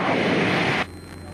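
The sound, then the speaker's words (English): A loud, steady engine roar from inside a small airplane cockpit, flying at traffic pattern altitude on a nice day, dense and droning, then it abruptly drops to a quieter, lower hum for the last half second. “would be one of the airplanes that I would get most of my time in later”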